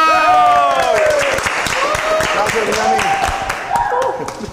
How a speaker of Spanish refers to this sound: Muy bien. ¡Un aplauso!